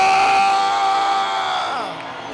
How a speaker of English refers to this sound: Why don't you put your hands together and give Jesus a shout? I can't hear you. I say, give him a scream. Give him a shout.